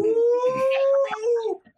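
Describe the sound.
A person imitates a wolf howling at the moon: one sustained, wavering tone that rises slightly, holds, then trails off after about a second and a half, fairly loud.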